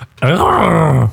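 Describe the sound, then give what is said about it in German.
A voice imitates an elephant's low rumbling call: one sustained, throaty groan lasting about a second, loud, rising slightly and then sliding lower before it stops. “Nein, sie trompeten oder sie kollern.”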